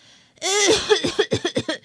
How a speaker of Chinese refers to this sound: 小黑鬼一边咳嗽一边想：“是烟囱被什么堵住了吧？”